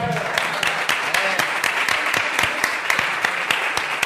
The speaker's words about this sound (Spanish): Un aplauso para él.